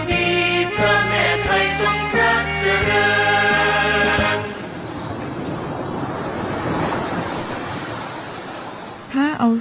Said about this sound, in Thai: สียงคลื่นที่หาดทรายแก้ว เข้าเครื่องแปลภาษา เขาคงจะบอกเราว่ามาเที่ยวที่นี่สิ หาดทรายขาวน้ำทะเลใสรอคุณอยู่